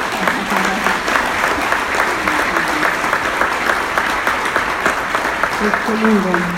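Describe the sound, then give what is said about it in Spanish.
Steady, loud applause from an audience standing up, many hands clapping continuously for several seconds, with faint voices and brief cheers mixed into the crowd noise. “Y a ellos, como les digo, yo me llamo …, y se pueden poner de pie y un aplauso para ellos porque es una bendición tenerlos a ellos.”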